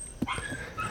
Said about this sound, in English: Um, also, listeners, one... you might hear some annoying noise in the background. Um, that's that's my fucking dog. She keeps yeah. squeaking at the back door.